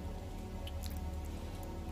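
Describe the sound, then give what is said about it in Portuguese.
Steady rain falls in a soft continuous hiss, with a few scattered drops pattering on a surface. It sounds even, with no voices. “Vocês veem um homem caminhando na chuva, meio que mancando.”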